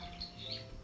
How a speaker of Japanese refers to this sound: 窓を開けながら配信をしているのですごく鳥の鳴き声が入ってるかもしれません